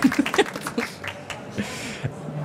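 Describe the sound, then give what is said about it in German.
An audience at a book fair stage event applauds, a dense, steady patter of many clapping hands at moderate loudness, with a few voices briefly audible over it at the start. “Ja, das ist euer Applaus.”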